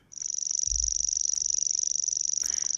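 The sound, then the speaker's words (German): A grasshopper warbler reels continuously, a high, dry, rapidly pulsing trill like an insect's, steady and unbroken throughout, with a brief low rumble near the start. “Das ist ein Feldschwirrel, der sich fast wie so ein mhm. Grillenzirpen anhört.”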